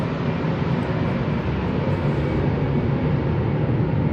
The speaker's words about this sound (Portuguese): como vocês podem perceber, eu estou bem perto do aeroporto aqui, aviões de grande porte subindo e descendo.